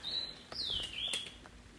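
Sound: small bird singing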